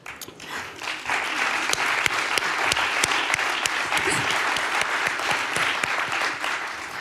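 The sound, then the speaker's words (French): Sustained applause from an audience at a prize presentation, a dense steady patter of many hands clapping at once, with a few sharper individual claps standing out over the continuous wash. “Vous êtes gentil de, m'applaudir, moi j'ai rien fait.”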